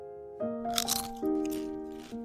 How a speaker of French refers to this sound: Hum, croustille, hein